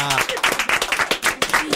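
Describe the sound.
A burst of audience applause, many hands clapping in a dense, steady patter for nearly two seconds, with a voice briefly audible at the start over the clapping.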